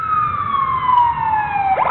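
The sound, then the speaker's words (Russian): A loud emergency vehicle siren wails on a sustained tone that slowly falls in pitch, then breaks into a quick warbling sweep at the end, over a low background rumble. “Звук сирены сообщает о том, что кому-то нужна помощь.”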